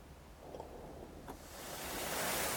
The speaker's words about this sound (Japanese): 今日は、またまた、海沿いに来てます。とっても今日は穏やかで、釣り人いっぱいいますね。